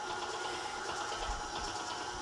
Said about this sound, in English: So just a little at a time, keep working the mixer up to speed. And it's gonna get harder for you to hear me. Get your mixer up to high and then set your timer and then come back to me and I'll tell you the next step.